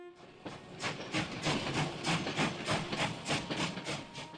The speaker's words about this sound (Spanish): Entonces el silbato comenzó a sonar. El tren estaba a punto de llegar.